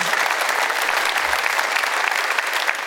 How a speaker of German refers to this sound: kriegt von uns aus München erstmal einen Applaus.